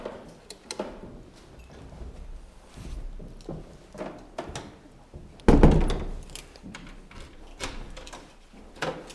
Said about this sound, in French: Attends, je vais peut-être fermer. Ouais, ferme seulement la porte.